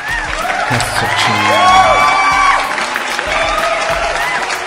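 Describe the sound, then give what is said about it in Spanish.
A crowd applauds and cheers for the month of February, with whoops and shouted voices rising over steady clapping; the noise swells in the middle, then continues at a lively, fairly loud level. “Vamos a darle un aplauso, por favor, al mes de febrero. Como no? Órale, aplausos.”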